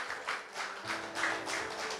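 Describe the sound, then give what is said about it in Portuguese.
An audience at a church service applauds the Lord together, a steady wash of many hands with a loosely rhythmic pulse, heard at moderate volume, with no talking over it. “Glória a Deus, aplauda o Senhor.”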